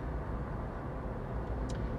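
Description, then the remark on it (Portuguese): A car coasts downhill in fifth gear without accelerating on a narrow, curving road, a steady low rumble with road and engine noise holding an even level throughout and a faint brief tick near the end. No one speaks. “Eu vou aqui em quinto e o carro vai deslizando, sempre tendo o limite de velocidade ou aqui um Continua a haver curvas, por isso dou aqui um cheirinho de travão, que isto é a descer e o carro embala, não é?”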